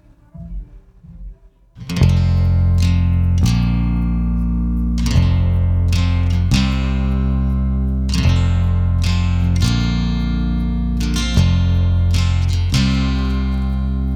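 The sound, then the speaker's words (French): After a quiet couple of seconds, a loud 1980s pop song intro kicks in: bright, sustained synth chords shifting in a steady rhythm, with no singing yet. “On met la chanson.”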